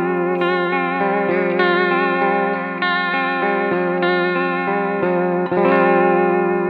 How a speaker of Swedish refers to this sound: Eh, nu har vi då som sagt den smala dykaren som är då eh, troligtvis då, vi tror, med bara vått, alltså vibratorsoundet.